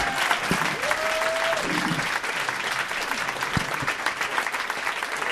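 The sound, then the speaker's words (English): A crowd applauds comedian Neal Brennan steadily throughout, dense clapping filling the whole stretch at an even, loud level, with a brief tonal sweep and a couple of soft thumps rising above it. “All right, uh, ladies and gentlemen, this is a big round of applause from the champs, Neal Brennan.”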